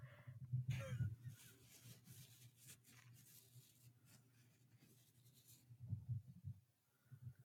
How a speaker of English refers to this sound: Okay, I'm just gonna turn my gain up and wrestle some tulle.